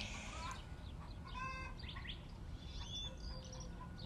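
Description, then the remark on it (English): Several hens cluck and squawk in short, irregular bursts while laying eggs, heard from a porch outdoors in the morning over a steady low background rumble, with no one speaking. “The chickens cannot stay silent when they're laying eggs like I get that it's can't be a pleasant experience.”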